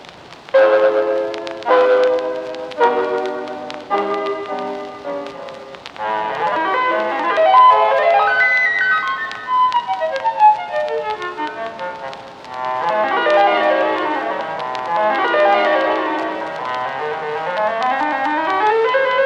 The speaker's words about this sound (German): Und das Resultat dieser Begegnung können Sie jetzt exklusiv in SWR 2 Treffpunkt Klassik hören. Claude Debussy, petite pièce électronique.